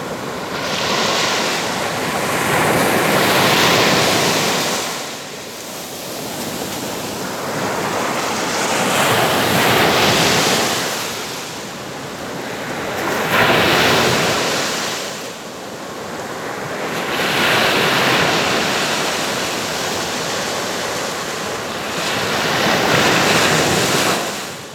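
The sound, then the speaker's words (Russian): Sea waves at Zelenogradsk, Russia, wash onto the shore in a steady, repeating rhythm, each surge swelling and receding roughly every five seconds, loud, with a constant hiss of surf and some wind noise between them. “А для того, чтобы вы прям прониклись его атмосферой, мы вам сейчас дадим послушать шум моря.”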